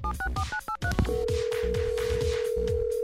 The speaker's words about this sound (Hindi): call लगाने जा रहा हूँ